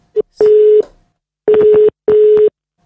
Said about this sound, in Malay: Jom kita telefon